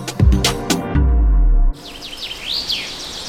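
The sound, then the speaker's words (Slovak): Forest ambience in Slovakia, a forest called the largest CO2 filter in Slovakia, in which several birds sing bright, sweeping chirps, following a loud low rumbling passage that cuts off abruptly. “Áno, je to les.”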